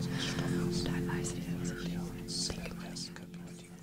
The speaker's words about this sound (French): qui ont vu le film Les ailes du désir de Wim Wenders, Das E-mail Hubert Berlin, se rappelleront peut-être de la scène où on entend murmurer tous les lecteurs de la bibliothèque de Berlin. Ce passage-là surgit justement dans le brouillamini des voix.